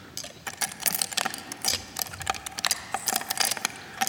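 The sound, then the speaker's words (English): A dense, irregular stream of sharp clicks and taps, close-miked and fairly loud, with heavy reverb as if in a big room that smears each click into the next, panned left and right in stereo. No voices. “And again, this is lovely, but a lot of reverb on it.”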